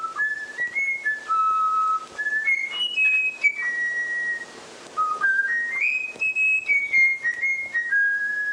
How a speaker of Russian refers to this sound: Сложно поверить, что это поет снегирь. То есть это флейтовая мелодия, которую научился петь снегирь. Как оказалось, снегиря можно научить насвистывать флейтовую мелодию, но для этого нужно специально его учить в детстве.